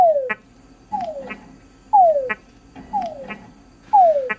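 A male túngara frog gives its mating call to females five times in steady rhythm, each a descending whine followed by a short chuck, clear against a faint background of other night sounds.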